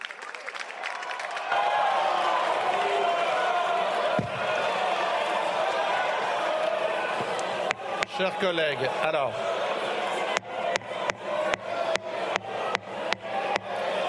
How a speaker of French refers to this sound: Chers collègues, ne hurlez pas. J'ai entendu. Ne hurlez pas. Je suspends deux minutes.